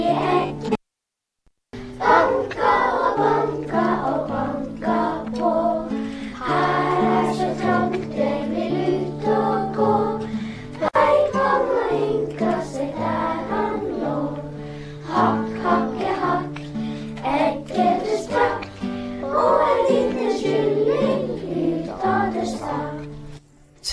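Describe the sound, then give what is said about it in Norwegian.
A group of children sing a song together in a classroom, their voices loud, with a brief silent gap near the start before the singing continues steadily. “Ja, men jeg har jo også hørt at uh, dere har en sang her på uh, i klasserommet eh, med kyllingene.”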